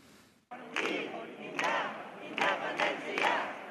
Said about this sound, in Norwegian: Tilhengere av å bryte ut av Spania klapper og synger frem resultatet av gårsdagens folkeavstemning.